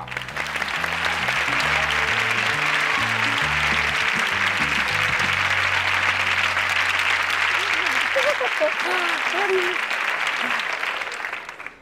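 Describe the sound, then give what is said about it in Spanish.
A crowd breaks into loud, sustained applause welcoming a riddle-telling humorist, lasting about twelve seconds, with a short bass-heavy musical fanfare playing underneath for the first part before the clapping continues on its own. “y quiero que le reciban con un fuerte aplauso”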